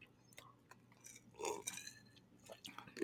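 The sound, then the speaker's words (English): Quiet mouth sounds of someone sipping drinks, rosé wine and a margarita: a few soft wet slurps scattered across the moment, with one fuller sip near the middle and faint background noise. “Let me sip. I'm gonna sip my second margarita as you do it.”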